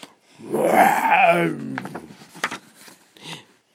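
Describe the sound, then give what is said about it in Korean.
A person loudly imitates a lion's roar, voicing a lion in a library after story time, a drawn-out growling bellow lasting about a second, followed by a few soft breathy and clicking mouth sounds. “그러더니 귀청이 떨어질 듯 요란한 소리로 으르렁 울었어요.”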